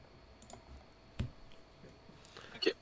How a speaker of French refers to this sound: Je, savais que j'aurais pas dû rajouter les, lancers de dés dans l'enregistrement en même temps qu'on jouait.